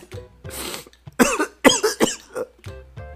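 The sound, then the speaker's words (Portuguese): A series of harsh, rasping coughs in quick succession, fairly loud, with a few wheezy breaths between bursts and no talking. “E essa é, tosse tá boa aí.”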